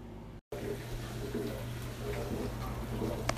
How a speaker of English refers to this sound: this is the sink I use to wash my dishes. And so you hear a lot of running water